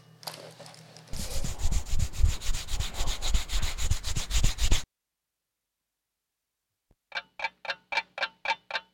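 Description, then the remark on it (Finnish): A hand rubs briskly back and forth over a bald head, close and steady for several seconds, then a pause followed by a quick run of about seven sharp, even taps. “Ääni syntyi kuin hieroin omaa kaljua päätäni.”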